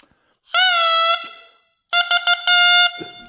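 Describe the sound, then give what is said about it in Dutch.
A loud, raw buzz from a cane double reed, made from a cut, gouged and folded reed stem, blown in two bursts: one long sustained blare, a short pause, then a second blast broken into several stuttering pulses before a longer held note. Bright and nasal. “En dan, dan vouw je hem dubbel en maak je hem open. Ik zou je de details besparen. En, en dan trilt het.”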